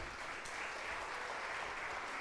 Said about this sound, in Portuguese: Aplauda o Senhor, glória a Deus.